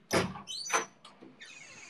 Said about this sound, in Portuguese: peraí, rapidinho, só abrir aqui uma porta fazer barulho.